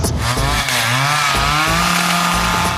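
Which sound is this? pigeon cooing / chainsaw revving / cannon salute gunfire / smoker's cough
chainsaw revving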